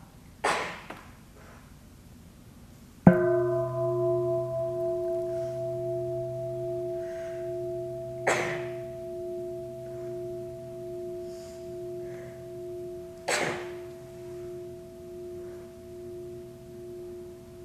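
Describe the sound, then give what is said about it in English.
A meditation bell is struck once, its clear sustained tone slowly fading and pulsing over many seconds, with a few soft, sharp taps in the quiet background. “And if the mind feels distracted or pulled away from the experience, very gently, just allowing the awareness to come back to the sensation of sound, the experience of bell.”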